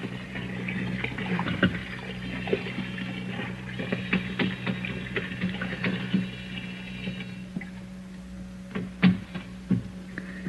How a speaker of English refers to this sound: There's the sink, some hot water. There, that's it. A wash rag around the sink bowl.